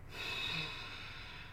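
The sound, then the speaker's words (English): A slow, steady breath out through the nose during a breathing exercise, soft and airy with a faint whistling edge, sustained for over a second with no talking. “Breathing in through your nose and out through your nose.”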